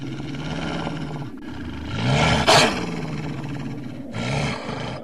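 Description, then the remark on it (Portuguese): Deep, rumbling growls of ice wolves carry on for the whole clip, loud, swelling into a harsher snarling burst near the middle before settling back into steady low growling. “Não precisa ter medo dos lobos de gelo.”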